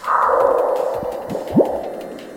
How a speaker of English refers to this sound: The sound picked up by InSight last September when a meteoroid crashed into the Martian atmosphere.